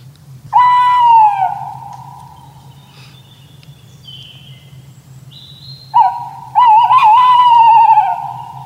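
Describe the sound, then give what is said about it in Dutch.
A tawny owl's hoot rings out: one long, clear note, a pause of a few seconds, then a louder wavering, drawn-out hoot, over a steady low background hum. “nou, vanaf december, januari hoor je dat geluid van die bosuil.”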